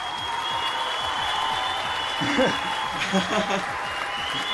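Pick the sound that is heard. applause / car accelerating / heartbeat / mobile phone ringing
applause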